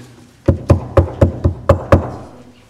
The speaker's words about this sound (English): Is he the one that opens the door? No. Jesus stands knocking.